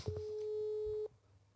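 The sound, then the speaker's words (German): A single steady telephone ringback tone sounds for about a second, a clean sustained electronic hum with harmonics, then cuts off abruptly, leaving quiet line noise behind. “Aber der geht wahrscheinlich gerade nicht ran.”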